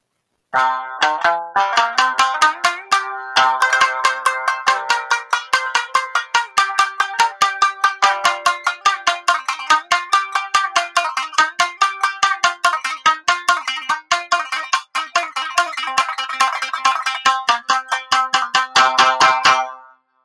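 A kinjō shamisen played solo for about twenty seconds: fast, driving runs of sharply struck, bright, twangy notes with percussive attacks, loud and energetic throughout, with no voices.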